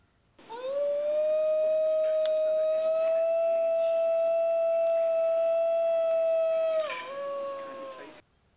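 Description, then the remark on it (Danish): A New Guinea singing dog (Canis dingo halstromi) lets out one long, shrill, steady howl, loud, with a clear whistling tone like a howling teapot that wavers and drops slightly near the end before fading. “Den skingre tone kommer fra Ny syngende hund, som man har troet var uddød i mere end 50 år, men som nu er blevet genopdaget.”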